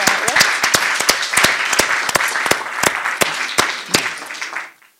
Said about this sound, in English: Well, I think that's been very provocative, so we should do a round of applause.